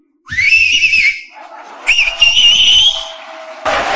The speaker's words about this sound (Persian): این آقا سه تا انگشتش یا دو تاشو گذاشته تو دهنش داره سوت میزنه من بهش میگم که توی جوون حیف دهنت گشاد میشه نمیخواد انگشتات دهنت بکنی شما همینجوری هم میتونی سوت بزنی